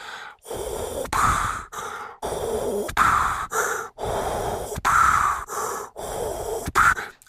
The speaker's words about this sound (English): Listen, I, I'm starting to hyperventilate.